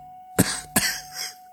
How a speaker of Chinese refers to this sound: 司机的话一落，凤年猛地咳嗽两声，宝四手本能的一护他，只觉得满手都是黏腻。